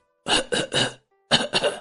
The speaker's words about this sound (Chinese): 这奔着村口的茅草屋就走过去了。刚到门口这儿，就听见有咳嗽的声音。